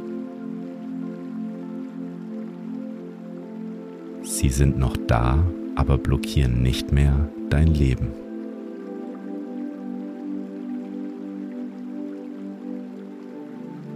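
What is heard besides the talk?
flowing river water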